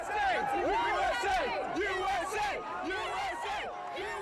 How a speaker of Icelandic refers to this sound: Allstaðar rópaði mannfjöldin USA, USA.